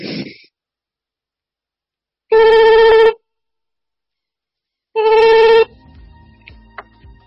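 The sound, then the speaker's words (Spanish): A telephone rings twice, each burst a loud, steady electronic tone lasting under a second, separated by a pause of silence, followed by faint low rustling and background noise. “¿Hola? ¿El teléfono del más allá?”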